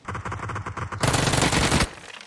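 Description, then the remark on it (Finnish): Video game gunfire: a rapid burst of automatic shots for about a second, then a denser, louder roar of sustained fire that cuts off and fades out. No talking. “tää ulkopuolella nokkas, mut vittu ammuin päin vittu.”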